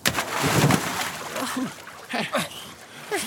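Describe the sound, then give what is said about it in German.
A loud burst of splashing as someone plunges into water to swim to the beach, followed by lighter sloshing with several short voices calling out over it. “Lasst uns zum Strand schwimmen. Ab ins Wasser.”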